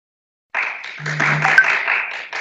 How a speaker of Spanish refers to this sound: así que vamos a, a darle un fuerte aplauso y pasamos a la sala de Teams donde ya está esperándonos la doctora.